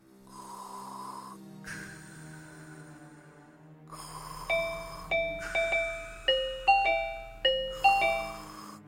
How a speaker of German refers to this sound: Oh, es klingelt an der Türe.